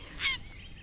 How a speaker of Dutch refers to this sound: Twee reigers die opvliegen. Ja, hier moet toch ergens een uh, reigerkolonie in de buurt zijn, hè?